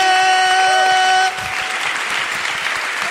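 A loud, steady horn-like tone blares for about a second, then gives way to a burst of dense audience applause for a quiz winner, many hands clapping at once.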